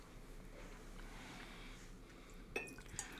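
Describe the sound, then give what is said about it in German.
A soft, steady trickle of whisky, matured in ex-Bourbon and ex-Sherry (Pedro Ximénez and Oloroso) casks, being poured into a glass, followed by a couple of sharp little clinks and splashy drips near the end as it drips several times. No one speaks. “Da habe ich getropft und zwar mehrfach.”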